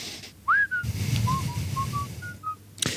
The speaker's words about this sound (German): Und du kannst dabei pfeifen.